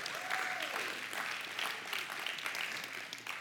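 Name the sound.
applause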